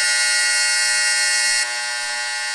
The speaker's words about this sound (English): yeah, my uh, my dryer's going. Sorry about that.